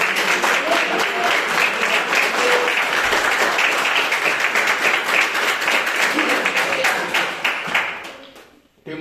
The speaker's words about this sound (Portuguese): Você pode aplaudir Jesus? Glória.